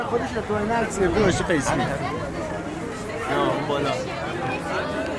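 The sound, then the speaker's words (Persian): Several people chat at once at an exhibition, their overlapping voices forming a steady, lively babble of conversation with no single speaker standing out. “الان اینجا بچه ها هستن دارن صحبت میکنن میخوایم مزاحمشون بشیم بدونی که بدونن ازشون صدا ضبط کنیم”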